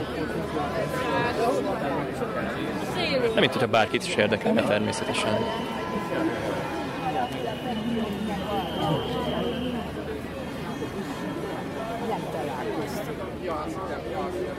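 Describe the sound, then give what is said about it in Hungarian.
A large crowd of demonstrators on a square chatters all around, a dense continuous babble of many voices, with one voice speaking over it and occasional sharp clatters. “Látszik, hogy hatalmas a támogatottság, nagyon sokan jöttek ki.”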